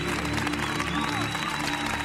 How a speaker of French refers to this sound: Donc tu as euh, la troisième place, médaille de bronze. Euh, à nouveau, on t'applaudit.